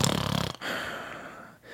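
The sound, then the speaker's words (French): A voice imitates the snore of a man lying in a ring attended by paramedics: a short, rattling low snort followed by a long, breathy exhale, fairly loud, with no talking. “il ronflait, mais vraiment.”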